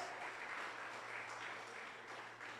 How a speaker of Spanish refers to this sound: Gloria a Dios. Denle un aplauso fuerte al Señor.